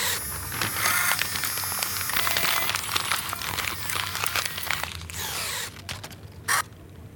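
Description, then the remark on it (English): Paper crafts are crumpled in a steady stream of dense crinkles and crackles, thinning into a few separate rustles near the end. No one speaks. “My paper crafts crumble, crumble, crumble, crumble.”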